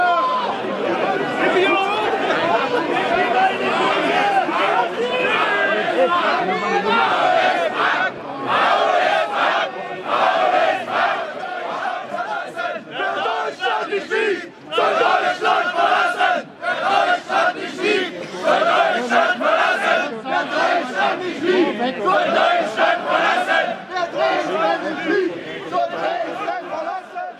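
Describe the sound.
A large crowd at a Pegida street protest rally in Dresden, Germany, shouts and chants loudly outdoors, voices overlapping in a dense, continuous roar with rhythmic bursts and occasional individual yells standing out.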